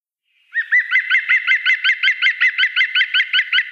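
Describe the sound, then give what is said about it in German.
A bird sings a fast, rolling series of repeated notes that sounds a bit like laughter, loud, with steady rhythmic pulses continuing for several seconds with nothing else audible. “Ja, es klingt ein bisschen wie Lachen. Ja, das ist der Gesang.”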